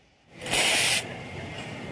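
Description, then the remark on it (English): A loud burst of steam hissing from an espresso machine wand as milk is steamed, lasting about half a second, then settling into a softer steady hiss. No voices. “Then I'm going to steam a little milk for you.”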